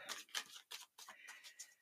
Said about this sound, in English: just finishing up the shuffle and I will then cut and see what cards we will be working with today.